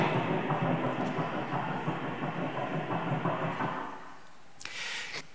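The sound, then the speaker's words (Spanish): A fetal heartbeat on a monitor: fast, rhythmic whooshing pulses over a steady, muffled static hiss that fades out after about four seconds, followed by a short crackle. “De hecho, encontramos que el corazón humano comienza a latir a los 18 días y cuando las máquinas pueden medir ya a partir de los 18 días este sonido en cada bebé.”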